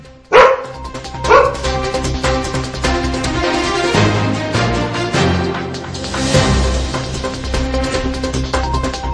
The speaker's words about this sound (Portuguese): Ô oh, cachorrada, viu?